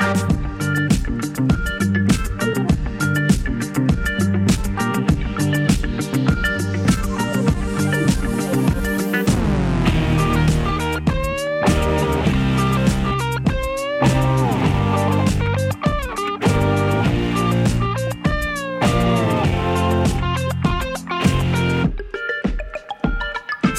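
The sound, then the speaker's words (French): A loud, driving instrumental electronic rock track, the one heard in a car in Florent Marchet's novel Le Monde du Vivant, plays continuously with a steady pounding beat and layered sustained synth tones, a sweeping rise midway, then stops abruptly near the end. “C'est ce son qu'on entend en bagnole en plein milieu de votre premier roman Le Monde du Vivant, Florent Marché,”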